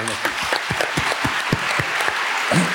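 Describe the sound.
An audience breaks into applause for a speaker: dense, steady clapping that stays fairly loud for the whole stretch, with a few voices faintly mixed in beneath the claps.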